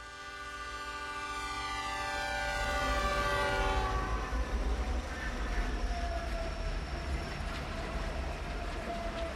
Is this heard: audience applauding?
no